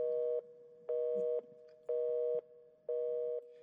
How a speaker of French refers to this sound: Il me prête son téléphone. Sarah ne répond toujours pas.